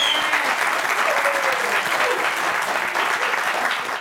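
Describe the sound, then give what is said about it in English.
Steady audience applause fills the whole four seconds, a dense, even clatter of many hands clapping at a constant, fairly loud level with no voices standing out. “All right, take everybody applauding here.”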